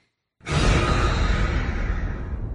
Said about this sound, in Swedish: När du minst anar det så bara ding. Man, kör, man hör det här skräckfilm, jumpscare ljudet.